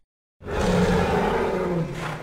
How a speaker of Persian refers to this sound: آها این خوبه نخ در دست تسیوس داشت تموم میشد نعره های مینوتور نزدیکتر از هر زمانی شده بود